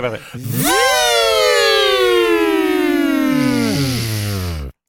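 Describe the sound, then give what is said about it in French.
Voices imitate a Dustbuster vacuum cleaner: a steady, loud whine that rises quickly in pitch, holds with slowly drifting tones, then drops in steps and cuts off after about five seconds. “Ok, c'est vraiment des imitations de Dustbuster.”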